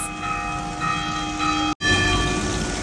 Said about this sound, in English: Can you hear that? That's church bells.